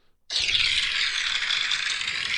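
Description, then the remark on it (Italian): Applause for the theme tune of the programme Oltre la pagina bursts in abruptly and holds at a steady, dense roar of clapping for about two seconds, a bright crackling wash with no voices over it. “Eccoli qua, questi sono gli applausi per la sigla che quelli stanno sempre bene.”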